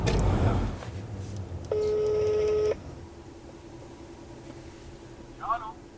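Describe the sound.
A brief rustle of a phone being handled as someone calls to ask for a meeting, then a steady electronic ringing tone for about a second, followed by quiet line hiss and a faint, short voice-like blip at the end.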